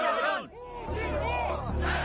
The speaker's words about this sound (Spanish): Toda esa gente se echó a la calle para protestar contra el fraude electoral, pero con el paso de los días, en vez de ceder las protestas, eh, se transformaron en algo aún eh, mayor, en un grito eh, por la dimisión de Putin. ¡Putin ¡Putin ¡Putin